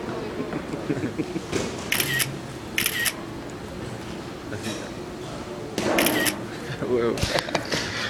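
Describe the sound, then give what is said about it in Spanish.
Several sharp camera shutter clicks in quick bursts, fairly loud, as a photo is taken, mixed with a busy background of people chatting. “¿Una picture? Sí, claro.”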